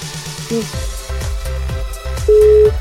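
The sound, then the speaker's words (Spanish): Electronic telephone line tones play over a low, pulsing background, with short repeated beeps and a steady tone sounding near the end, as a call is being dialed. “Ya te tenemos, estamos marcando.”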